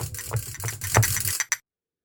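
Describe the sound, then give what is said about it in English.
A woodpecker, Stickles, drums rapidly on wood in a loud rattling burst lasting over a second, followed by two short separate taps before silence. “His only friend is Stickles, the woodpecker.”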